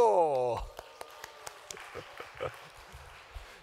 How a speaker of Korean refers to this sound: 박수.